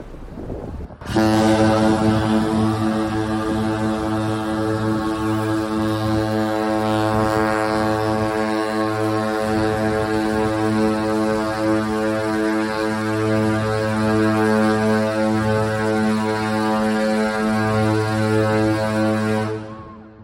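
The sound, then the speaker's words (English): A cruise ship's whistle sounds one long, loud, deep blast with a rich, buzzy tone, holding steady for nearly twenty seconds, with some wind noise and no talking. “In fact, we've got some of the audio of the whistle blasters.”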